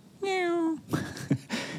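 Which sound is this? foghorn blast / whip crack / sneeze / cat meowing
cat meowing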